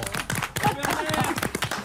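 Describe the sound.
Studio audience applause for a collaborator of the show, a steady wash of many hands clapping throughout, with a person talking over it.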